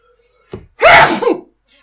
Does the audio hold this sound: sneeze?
yes